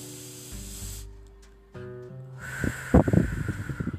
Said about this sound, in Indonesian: Nah, untuk pernapasan perut, kamu eh, bisa dicoba dengan memegang perut kamu. Kemudian kamu ambil napas dalam-dalam ya